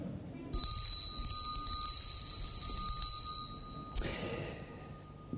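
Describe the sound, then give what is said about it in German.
A bright, high-pitched bell rings continuously for about three seconds, loud, then stops; a short rustling clatter follows, with no talking. “Erneut ertönt die Glocke.”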